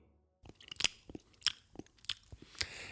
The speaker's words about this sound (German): Ich statze, ich statze, schmatze, nee, ich starte einfach mal äh, schmatzend hier heute rein.